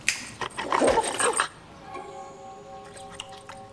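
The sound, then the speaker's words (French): A dog barks in a quick cluster of loud yaps during the first second and a half, then the noise drops to a faint, steady whine-like hum. “Je ne saurais donc trop vous conseiller, ainsi qu'à votre toutou, de rentrer à la niche.”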